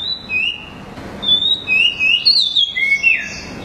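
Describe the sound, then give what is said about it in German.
An Oriental magpie-robin, also called the Dayal thrush, a small flycatcher rather than a true thrush, sings a varied run of clear, high whistled phrases, some sliding up or down, with brief pauses between them, over a soft, steady background hiss. “die Dayal-Drossel oder es ist eigentlich keine richtige Drossel, bezeichnender im Englischen Oriental Magpie Robin.”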